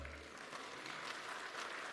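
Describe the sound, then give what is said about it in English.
A church audience claps steadily at news that an offer on land was accepted, a dense wash of many hands with no pauses, fairly quiet throughout. “You can clap.”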